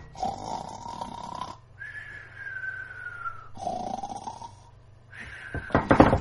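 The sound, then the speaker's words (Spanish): A baby snoring in a cradle, with two slow in-and-out breath cycles: a rough, rattling inhale followed by a higher, whistling exhale, fairly quiet, with no talking. “Y ahora nuestro niño en su cuna ronca ya.”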